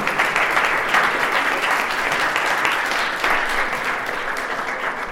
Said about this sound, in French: installez-vous et je vous propose de l'applaudir.